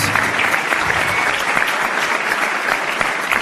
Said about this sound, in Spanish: Un aplauso para todos, todos ellos.